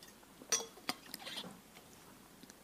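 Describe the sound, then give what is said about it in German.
A glass clinks sharply a couple of times, followed by a brief, soft rustle of a speaker sipping water. “Mal noch kurz einen Schluck Wasser.”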